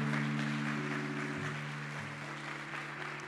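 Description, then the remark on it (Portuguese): An audience applauds for God during a sermon in a steady, dense wash of clapping that holds for several seconds, with sustained low keyboard chords droning underneath and no voices. “Posso ouvir uma salva de palmas a Ele?”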